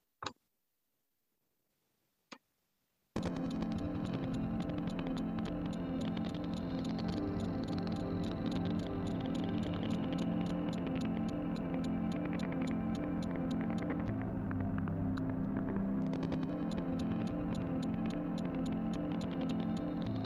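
Two sharp clicks and a short silence, then glitch music with sustained low tones enters, overlaid with deliberate steady, rapid crackling ticks and glitchy, echoing texture that continue to the end, with no talking.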